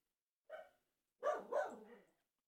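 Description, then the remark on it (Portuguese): A dog barks three times: one short bark, a brief pause, then two quick barks in succession, clear with no talking over them. “cala a boca, olha lá, falando em cachorro.”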